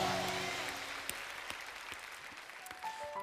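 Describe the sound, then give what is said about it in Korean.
A church audience gives applause of glory and thanks to the Lord, a dense wash of many hands clapping at once with scattered sharper claps standing out, fading slightly over the few seconds. “우리 주님께 영광과 감사의 박수 올려드립시다.”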